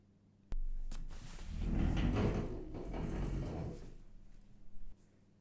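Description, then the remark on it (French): A refrigerator door pops open with a sharp click, followed by a few seconds of low rumbling and rustling as the fridge is searched for a child's cuddly toy, then thumps shut. Fairly loud, with no voices. “rien non plus dans le frigidaire.”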